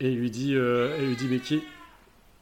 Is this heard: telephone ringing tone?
no